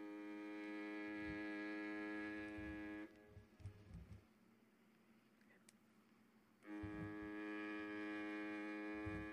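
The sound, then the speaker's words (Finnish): Two long, loud foghorn blasts, each a steady, buzzy droning tone lasting a few seconds, separated by a short gap of quieter rumbling background noise. “Siis joku siis laivan se, se, joku sumutorvi vai?”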